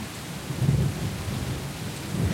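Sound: rain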